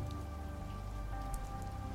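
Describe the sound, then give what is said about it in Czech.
Steady rain patters onto a hard surface, a dense continuous hiss with scattered sharper drips, constant in level throughout with no voices. “Protože pořád pršelo, doběhl jsem na nedalekou zastávku a naskočil do autobusu, který se už chystal odjíždět.”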